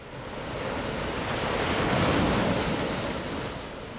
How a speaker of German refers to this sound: Technik. Jetzt bitte eine Welle.